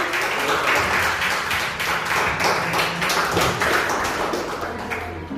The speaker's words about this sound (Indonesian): Beri tepuk tangan.